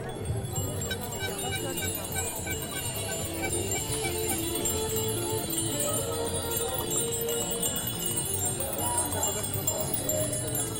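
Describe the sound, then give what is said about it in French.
A crowd of bicycle bells rings all at once to start a gathering promoting other ways of getting around town, a dense, continuous high-pitched jangle of overlapping dings lasting the whole stretch, with a murmur of voices underneath. “Allez, un petit concert de sonnette là pour démarrer.”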